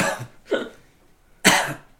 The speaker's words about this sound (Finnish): biisi, mikä on kaksi ja puoli minuuttia yskähdyksiä.